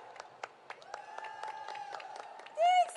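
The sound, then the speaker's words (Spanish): An audience applauds a performer introduced at a show, with scattered, uneven claps, joined by a sustained high whistle-like cheer, then a louder burst of whooping toward the end. “¡Aplauso!”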